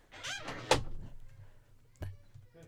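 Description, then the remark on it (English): A door with pants stuck in it is opened with a sharp clunk to pull the pants out, then another loud knock of the door a moment later, with faint rustling and muffled voices in between. “there's pants stuck in the door, guys. Pull the pants out, quick.”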